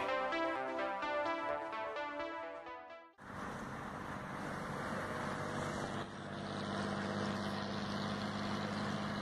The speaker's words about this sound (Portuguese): A opala caravan soltava fumaça na noite com o seu ronco alucinado, fazendo as corujas e animais noturnos se assustarem.